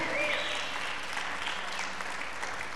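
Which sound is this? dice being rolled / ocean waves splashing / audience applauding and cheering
audience applauding and cheering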